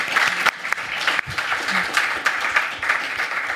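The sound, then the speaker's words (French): Steady audience applause for a pun fills the whole stretch, a dense, even patter of many hands clapping at a constant loudness, with a brief low murmur of voices partway through. “Un applaudissement sur un jeu de mots, mec.”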